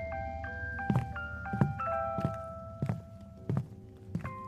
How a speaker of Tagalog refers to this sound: A- ano yun? Music box ba yun?